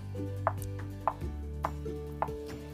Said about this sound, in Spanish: Asustados los dos cerditos corrieron y corrieron y entraron a la casa del tercer hermano, construida de ladrillos y cemento. Como el lobo estaba ahí, decidió nuevamente tocar la puerta.